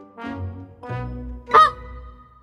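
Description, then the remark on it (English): A goose, the giant's goose that lays golden eggs in Jack and the Beanstalk, honks loudly three times in quick succession. The third call is sharper and more piercing than the first two, with no voices around it. “He had a giant magic harp and a goose that lays golden eggs”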